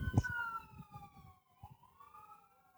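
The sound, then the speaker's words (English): An emergency vehicle siren wails outside, its steady tone gliding down and then rising again, fairly faint over a low background rumble with a brief thump at the start. “Omit the sirens.”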